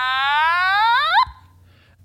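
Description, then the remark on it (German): A buzzy, nasal electronic tone from an Otamatone electronic toy instrument slides steadily upward in pitch for over a second, then cuts off abruptly, like a wailing toy synth played alone. “Das ist ein wunderbares äh, Instrument, das ungefähr so klingt.”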